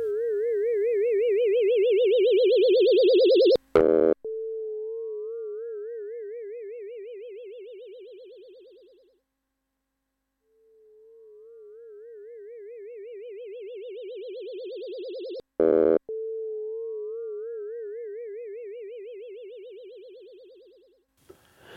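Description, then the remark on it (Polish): A replayed test sequence with automatic gain control switched on: warbling electronic test tones with rising sweeps, broken twice by sharp clicking bursts of short impulses about 20 dB above standard peak level, while the gain gradually lowers sensitivity and the overall level swells and fades in two long cycles. No voices. “Teraz aktywuję funkcję save i ponownie odtwarzam sekwencję testową.”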